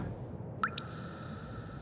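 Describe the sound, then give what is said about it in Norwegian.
Two quick drips of pure heavy water, the end product of Norsk Hydro's heavy-water electrolysis cells, land close together, the first a clear plink with a ringing tone that lingers, over a low, steady background rumble. “Til slutt drypper det rent tungtvann ut.”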